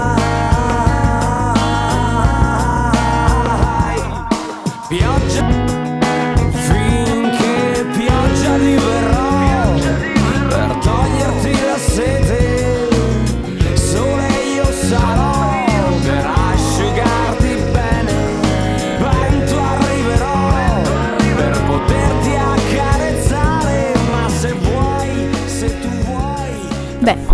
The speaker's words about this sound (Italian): adesso un momento musicale, … dei ….